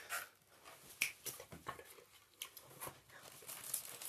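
A child fiddling with crayons: light, irregular clicks and taps mixed with soft crinkling rustles, fairly quiet and scattered unevenly across a few seconds, with no talking.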